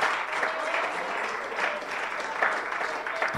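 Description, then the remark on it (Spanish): A church audience applauds in praise of God, the King of Kings, a dense wash of many hands clapping at an even loudness throughout, with faint voices mixed into the clapping. “Es más, vamos a darle un aplauso a Rey de Reyes, Señor del Señor.”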